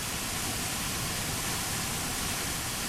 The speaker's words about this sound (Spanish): La cascada de Abelón luce espectacular y magnífica en esta época del año.